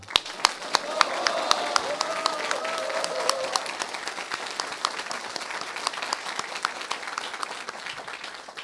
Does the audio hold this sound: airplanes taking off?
no